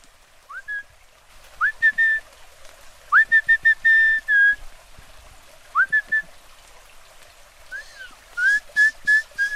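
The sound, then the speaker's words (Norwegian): A person out in the countryside whistles a series of short rising notes to try to call an otter, some single and some in quick repeated bursts, clear over faint outdoor background noise. “Jeg skal prøve å kalle på oteren.”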